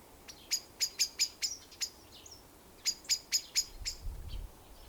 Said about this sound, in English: Allow the sounds of the birds on my podcast and any sounds that are happening where you are to come and go.